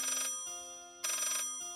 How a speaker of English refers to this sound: We were really tired, and we went to sleep. And all of a sudden, the phone started ringing.